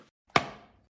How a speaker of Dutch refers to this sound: Nee, het was het dichtklappen van de Lenovo ThinkPad X1 Fold. Die laptop met opvouwbaar scherm.